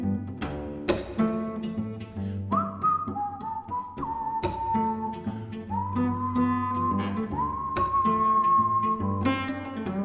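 A cellist whistles a clear, sustained melody with sliding notes over plucked, jazzy cello chords, the cello held in guitar position, with sharp pizzicato strikes punctuating the steady accompaniment. There is no talking.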